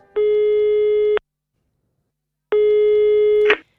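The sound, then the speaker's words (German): A telephone call tone sounds twice as a call is placed to Simon Rattle, each a steady, buzzy beep about a second long with a pause between, loud, the second one cut off by a short click. No one speaks. “Genau, mein Anruf bei Simon Rattle.”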